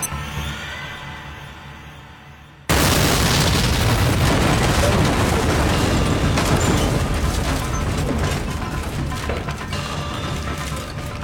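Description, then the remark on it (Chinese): A sudden explosion outside a school classroom, set off by pressing a button on an electronic watch, blowing away the staircase, bursts in after a quiet lead-in, followed by a loud, sustained rumbling roar with crackling debris that slowly tapers off over several seconds. “瞬间，外面传来轰隆的爆炸声。”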